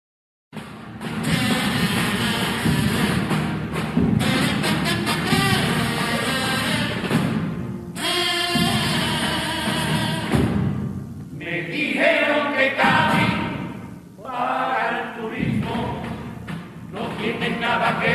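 A carnival comparsa sings a pasodoble, with full, harmonious group voices over steady accompaniment, loud and continuous with a few brief dips between phrases.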